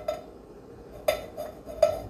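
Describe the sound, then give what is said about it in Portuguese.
A metal pot used to heat water is handled, giving a few light clanks and knocks with a short metallic ring, spaced irregularly over a couple of seconds with no talking. “É um negocinho que eu, coloquei, que eu esquentei a água.”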